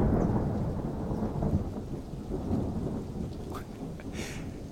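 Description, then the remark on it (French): A long, low rumble of thunder rolls on steadily, deep and heavy, with rain hissing underneath and a few faint brighter crackles near the end. “ça commence à, péter le ciel.”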